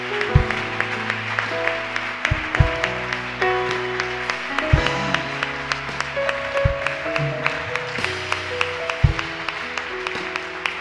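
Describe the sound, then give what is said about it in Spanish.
A church audience applauds for the Lord in a sustained, dense wash of clapping lasting the whole stretch, layered over steady instrumental music with sustained keyboard chords and periodic deep bass thumps. “Dale el mejor aplauso que le puedas dar al Señor.”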